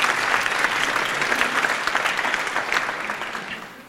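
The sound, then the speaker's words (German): Sustained audience applause for a young man in a white shirt who volunteered to ask a question, a dense patter of many hands clapping at steady loudness for about four seconds, tapering only slightly at the end. “Applaus für den jungen Herrn, dass er sich jetzt hier gefordert hat.”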